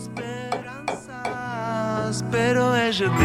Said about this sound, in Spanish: Ahora le sirvo un poquito más, una, una tacita de café. ¿Cómo suena ese café? Me interesa, a ver.